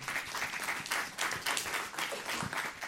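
Steady applause from an audience fills the whole stretch, a dense wash of many hands clapping at once, fairly loud, with no voices standing out.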